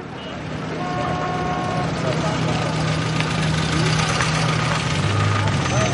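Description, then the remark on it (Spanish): A car engine hums steadily as a lawyer's car drives through the busy streets of Ramallah, West Bank, amid dense traffic, with a low rumble, passing traffic noise and a few faint tonal beeps in the background. “Salma y Siad circulan por la ciudad en el automóvil del abogado.”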